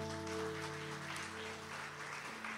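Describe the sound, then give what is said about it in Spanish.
An audience applauds the Lord after a prayer in a steady, continuous wash of clapping, with a sustained keyboard or organ chord holding underneath. “¿Por qué no le damos otro aplauso a nuestro Señor?”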